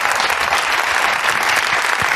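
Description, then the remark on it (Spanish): An audience claps steadily, a dense, continuous patter of many hands at an even loudness, with no voices standing out above it. “No aplaudáis porque es para que se duerma la persona esta.”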